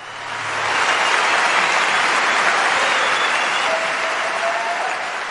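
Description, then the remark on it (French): Sustained applause from an audience at the Olympiades culturelles 2022, warmly welcoming a self-taught painter onto the podium, a dense, steady patter of many hands clapping that swells in quickly and holds at full strength for several seconds. “J'aimerais qu'on accueille chaleureusement sur le podium l'artiste peintre autodidacte”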